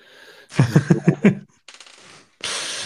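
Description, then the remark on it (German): A die is rolled again and rattles and tumbles across a hard surface in a quick run of five sharp clacks, followed by a few softer scattered clicks and then a steady rustling hiss. “Ich würfel nochmal, weil es war wieder Ding und ich möchte nicht nochmal Ding bauen, ich will noch ein anderes bauen.”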